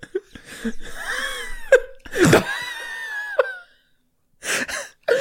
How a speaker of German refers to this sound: Also, das sind die Schreie. Danach kommen mehr Soundeffekte.